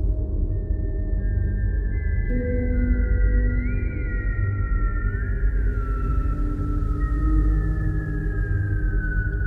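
A soft, high-pitched whistle holds a steady tone for several seconds, wavering and gliding slightly in pitch, over a constant low rumbling background, heard at the end of the day from bed in a bedroom.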